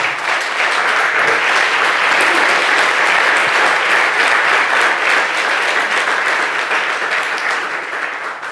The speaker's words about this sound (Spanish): ¿Cuántos dicen amén? ¿Cuántos dicen amén? Denle fuerte ese aplauso al Señor.